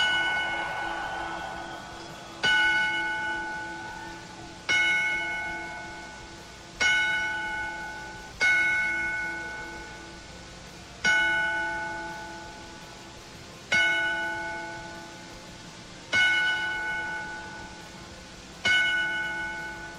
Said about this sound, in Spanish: Escucharemos 10 campanazos en memoria de Owen Hart.